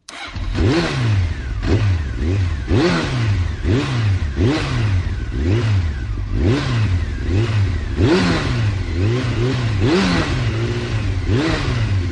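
A Harley-Davidson motorcycle, on which Martelotti arrived at the CT, revs up and down about ten times in a steady rhythm, loud, with a deep throbbing idle between the throttle blips and no talking.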